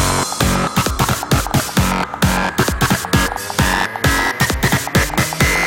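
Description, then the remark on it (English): Loud electronic music with extra fat distortion added, heavily distorted with a pounding, steady beat and gritty, saturated tones filling the whole range, played alone with no voices. “More distortion.”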